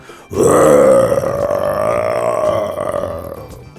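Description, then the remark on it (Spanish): A loud, sustained, rough growl, most likely a human voice imitating a fierce bear, starting abruptly and rumbling on steadily for over three seconds with no talking. “un verdadero viejo oso gruñón salió del bosque y dio el gruñido más feroz que Pepe jamás hubiera escuchado”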